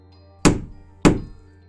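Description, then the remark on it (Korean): Two heavy, booming thuds strike a steel door about half a second apart, each ringing briefly before fading, loud with no voices; the thudding on the steel door went on for six hours. “그러던 어느 날 6시간 동안이나 철문에서 쿵쿵거리는 소리가 나고 있었다.”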